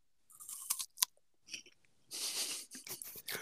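A crisp bite into a juicy pear, followed by a few seconds of loud, wet crunching and chewing. Nobody speaks.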